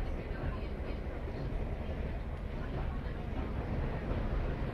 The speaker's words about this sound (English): The train has passed McLaughlin's Bridge now, and here the railway, the canal, and uh, the river Water all run in parallel in the same valley. Um, we're approaching Kilcock,